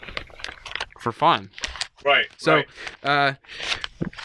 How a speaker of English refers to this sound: But uh, sorry if you heard my bags rattling around in the background.